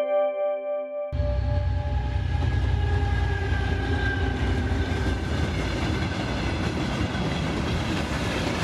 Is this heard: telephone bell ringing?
no